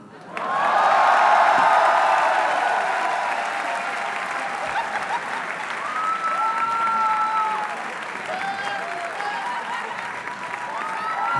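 A live crowd bursts into loud, sustained applause and cheering, with whistles and whoops rising over the clapping as the ovation continues steadily throughout.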